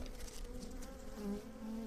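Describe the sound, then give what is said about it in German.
Bees and bumblebees buzzing steadily over a well-fertilised agricultural field full of dandelions, a continuous low drone with pitch wavering slightly as the insects move, no voices. “Und wenn man so ein Feld anschaut, ein, sage ich mal, gut gedüngtes landwirtschaftliches Feld, wo viel Löwenzahn ist, da ist ein Brummen und Summen, das ist wirklich ganz, ganz genial.”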